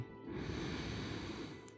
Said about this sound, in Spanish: Inhala profundamente